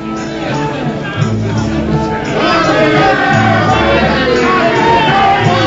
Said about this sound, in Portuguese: Na varanda ajardinada, as horas passam devagar, ao contrário da multidão lá fora que corre aos gritos, manifestando suas crenças, sua alegria e até mesmo suas desesperanças.